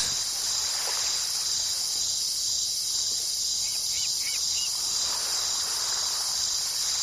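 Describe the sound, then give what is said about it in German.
Crickets chirp steadily in a high, continuous trill over the soft, constant rushing of the sea, heard in the evening from bed, with no voices present. “Ja, wenn nicht hier, äh, wo dann, wenn man abends im Bett liegt und außer dem Rauschen des Meeres und dem Zirpen der Grille nichts hört.”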